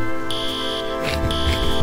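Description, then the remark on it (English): Fire alarms blare in a studio where a carpet is on fire and the lights are strobing, with a steady high-pitched electronic tone, sounding in two long pulses over a dense, continuous background hum; no voices are heard. “oh, I hear the fire ex- alarms going off.”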